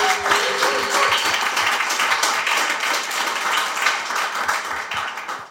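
An audience of Nostr users applauding, dense and steady, with many hands clapping at once for several seconds at a fairly loud, even level.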